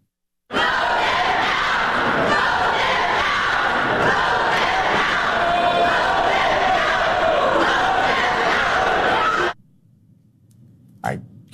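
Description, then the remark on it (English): A loud, dense crowd shouts and yells over one another for about nine seconds during a near-fight on the floor of the Tennessee State Assembly over proposed gun control laws, a chaotic wall of angry voices that cuts off abruptly into near silence, followed by a brief sharp noise. “Police nearly had to break up a fight on the floor of the Tennessee State Assembly over proposed gun control laws.”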